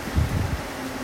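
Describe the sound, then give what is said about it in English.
Steady, hissing rain recorded from a patio fills the background, mixed with low rumbling outdoor noise early on and a faint, constant hum near the end. No one speaks. “I was hoping the rain might be nice, but there's a lot of other noise as well.”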